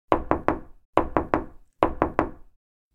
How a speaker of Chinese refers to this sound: 正当她开心的和国王爸爸一起吃早餐时，传来了一阵急促的敲门声。